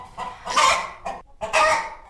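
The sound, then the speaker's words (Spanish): Hens of the Moñudas and Tufonas breeds from Guadalcázar, Córdoba, cluck loudly in two raspy bursts separated by a brief pause, with no voices over them. “Pues en principio os contamos que son gallinas únicas que suenan así.”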